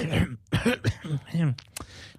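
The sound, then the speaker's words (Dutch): A phlegmy, rasping throat clearing in several gravelly bursts, not a cough, moderately loud, with voiced, rumbling grunts between the harsher scrapes. “niet hoesten, maar gewoon slijmerig.”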